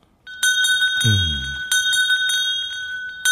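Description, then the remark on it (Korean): A bright bell rings out clear, struck several times at an uneven pace, its shimmering tone sustaining between strikes, with a deeper, fading tone briefly joining in early on. It is a radio quiz's mystery sound, mixed into a song. “네, 종소리입니다.”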